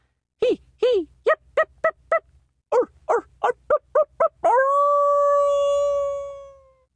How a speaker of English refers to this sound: During the night, a coyote howled surprisingly close to the ashes of his fire, a shrill, yammering, nickering skirl of sound fit for twelve animals of that size.